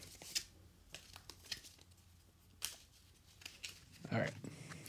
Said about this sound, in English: No, no, actually, you're pretty good. Like he's poker level shuffler.